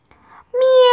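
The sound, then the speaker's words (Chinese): A voice imitates the meow of Wilbur the cat: a soft, breathy lead-in, then a loud, drawn-out, high-pitched meow that holds steady to the end. “喵！威尔伯惊叫起来。”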